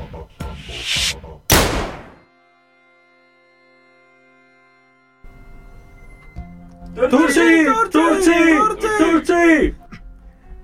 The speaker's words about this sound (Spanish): Recordamos que todo esto estaba a punto de estallar por una bala que había sonado tal que así.